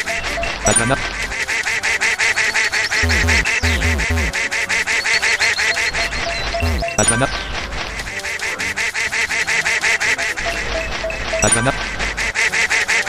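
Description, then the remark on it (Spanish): A video game duck quacks and honks over and over, loud, layered on top of busy, pulsing game music that keeps going the whole time. “Y el pato nos empieza a mirar todo”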